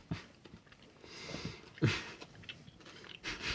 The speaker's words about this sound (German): noch kurz das Stück, ja. ein Stück Schokolade kauen.